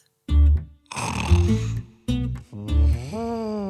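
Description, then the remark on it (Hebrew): A voice imitates an elephant sleeping on a path, snoring: four loud, rumbling snores in a steady rhythm, alternating low growling inhales with breathier exhales, the last one rising in pitch. “פיל ישן על השביל.”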